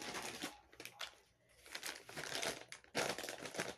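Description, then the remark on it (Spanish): A makeup remover wipe is pulled from its packet, the plastic crinkling and rustling in bursts with a brief lull midway, then a louder crackle near the end. No one speaks. “Estoy tomando una toallita desmaquillante no me desmaquillé y ya traigo toda la cara escurrida.”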